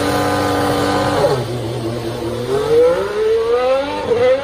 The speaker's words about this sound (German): Startübung am Ende der Boxenausfahrt, das klingt dann so.